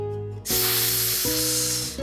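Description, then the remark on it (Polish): A voice lets out one long, loud, breathy hiss lasting over a second, over a steady background of sustained musical tones that shift chords partway through. “Syknął Golu.”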